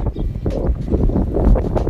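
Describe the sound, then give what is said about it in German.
Wind buffets the microphone in a steady, low roaring rumble that swells and dips over a couple of seconds, loud, with no voices. “Bei Gott kommt ein Wind.”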